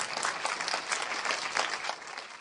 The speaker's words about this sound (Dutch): Oké, ik wil jullie vragen om, als jullie dat willen, ik weet dat het eng is, maar goed, we gaan een applaus geven om jullie te helpen.